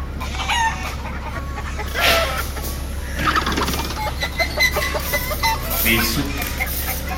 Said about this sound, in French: qu'est-ce qu'ils ont ces poulets oh, Ils sont malades ou quoi Non, non, non, ceux-là, ils sont pas très réussis.